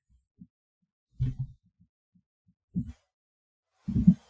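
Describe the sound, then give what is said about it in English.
Soft, dull taps from someone texting on a phone, picked up as low thumps. They come in a few irregular bursts with quiet gaps between, and no one speaks. “I, I, like hearing you text.”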